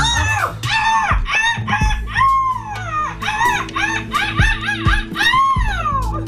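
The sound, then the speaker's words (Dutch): A woman from Ostend imitates a seagull in a seagull-screech contest, the winning women's entry, letting out a rapid series of shrill, wavering screeches and yelps that rise and fall, loud, with no other talk. “de terecht bekroonde meeuwenschreeuw”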